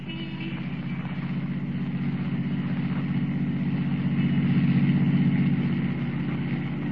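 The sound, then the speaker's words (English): A waiting taxicab's engine rumbles steadily, its low drone swelling slightly louder midway as the cab pulls away, then easing off a little toward the end. No voices. “Rather than risk detection by trailing the girl as Superman, Kent steps into a waiting taxicab and follows her.”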